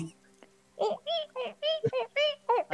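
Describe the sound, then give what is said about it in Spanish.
A voice imitates a window creaking in strong wind, making about seven squeaky, rising creaks in a quick rhythmic series, fairly loud over a faint steady hum. “Pero así sonaba la ventana, rechinaba, había mucho viento, entonces se escuchaba.”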